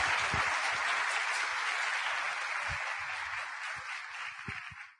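A crowd applauds steadily with dense, continuous clapping that fills the whole stretch, staying loud before thinning slightly and fading out at the very end.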